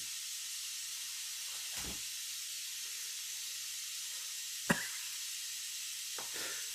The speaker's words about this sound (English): oh, sorry you can hear the radiator, everybody. I'll go cut that off. I didn't even notice it for a second. It is very loud. It's extremely loud.